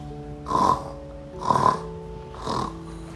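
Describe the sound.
A voice imitates a pig's oink three times, evenly spaced about a second apart, each a short nasal snorting grunt, moderately loud with no talking.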